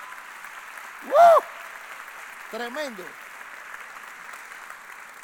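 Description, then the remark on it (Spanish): A church audience applauds itself in a steady, even wash of clapping from start to end, at the preacher's call. A loud voice cries out briefly early on, and a short spoken word cuts through the clapping afterward. “Dale un aplauso a ti mismo, aleluya.”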